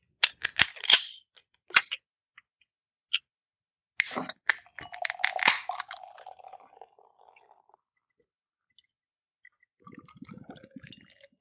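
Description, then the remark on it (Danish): A few sharp clicks and handling noises, then a can of the beer Cold Ones cracks open with a hiss, followed by the beer pouring steadily into a glass and a soft fizzing at the end. No one speaks. “Bare, den, bare lige, når man åbner dåsen. Den poppede simpelthen ja.”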